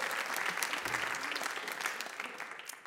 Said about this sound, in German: Der hat natürlich genauso einen Applaus verdient.